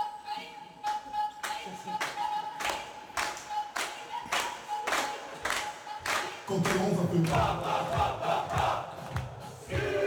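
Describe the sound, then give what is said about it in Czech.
The Kapfenberg football team of the Austrian second league, with their coaches, claps and stomps in their echoing dressing room in a steady, evenly spaced rhythm, celebrating a victory, then bursts into loud cheering and shouting together as the beat continues underneath. “Tým Kapfenbergu totiž tímhle způsobem ve své kabině slaví každé své vítězství i se svými trenéry.”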